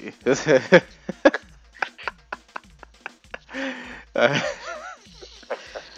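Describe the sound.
Heavy, ragged panting of a fatigued man, a string of quick breathy gasps, some voiced and wheezy, coming in uneven bursts with short pauses between them.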